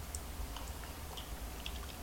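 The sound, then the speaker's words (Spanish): Soft clinks of a spoon quickly stirring the first coffee of the day in a cup, a handful of light irregular taps over a steady low hum, with no one talking. “Voy a revolver rápidamente y darme el primer buchito del día”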